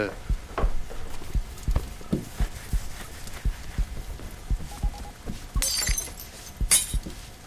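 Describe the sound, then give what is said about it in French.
The glass of a Velux roof window shatters in two sharp, bright crashes near the end, following a run of irregular dull thuds and knocks that fill the first several seconds. “Oui, c'est ça, la fenêtre de toit. Elle a explosé.”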